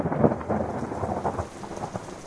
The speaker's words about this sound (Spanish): Cuando los rayos alumbraban y los truenos sacudían la casa, corría a la habitación de mis padres para esconderme.